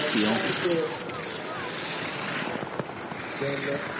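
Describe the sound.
Skis of a Swiss ski racer wearing bib number 37 scrape over icy snow on the race course in Sion, a continuous, harsh, hissing rasp with a gritty texture, while voices speak briefly at the start and again near the end.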